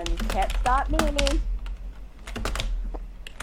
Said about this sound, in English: so I got like a membrane keyboard that sounds like a mechanical